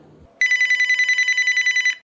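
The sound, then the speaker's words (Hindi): A telephone rings loudly in one sustained burst of about a second and a half, a rapid buzzing trill with no voices over it, as a call comes in from the police. “सब परेशान ही थे कि पुलिस का फोन आया”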